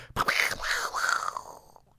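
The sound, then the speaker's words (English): A voice imitates a lightning strike: a sudden sharp burst, then a hissy, wavering sound that rises and falls several times before trailing off after about a second and a half. “It's like a it's like a oh. lightning strike. That's what lightning sounds like.”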